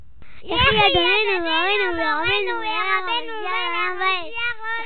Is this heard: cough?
no